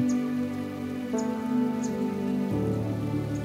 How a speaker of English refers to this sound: And you can almost hear the stream of trickling water flowing. The sound of the water is relaxing and soothing.